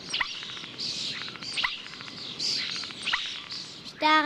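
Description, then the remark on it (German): A busy stream of common starling song with varied whistles, clicks, rapid buzzy trills and sharp downward calls, repeating in bursts with no one talking. The starling is mimicking the calls of other birds. “Manchmal kommt es vor, dass wir Menschen hinters Licht geführt werden, denn es gibt Vögel, die täuschend echt bestimmte Laute und Melodien anderer Vögel nachahmen können. Bekannt dafür sind zum Beispiel die Stare.”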